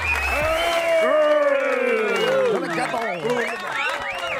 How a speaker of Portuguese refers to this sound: Palmas para o deputado Bruno Lima.